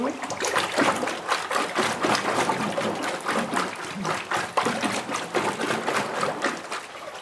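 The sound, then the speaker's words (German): Thick wet sloshing and swishing as a few handfuls of clumpy paper pulp are stirred through water into a milky suspension, a steady churning rhythm of repeated liquid surges lasting several seconds with no voices. “Deswegen müssen wir es mal richtig gut durchrühren.”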